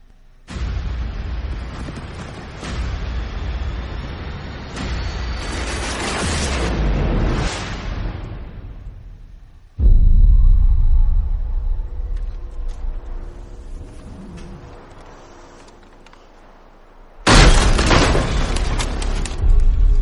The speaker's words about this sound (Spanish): la última saga del Planeta de los Simios, que en esta ocasión se llama La Guerra del Planeta de los Simios. Y vamos a escuchar o, ver el tráiler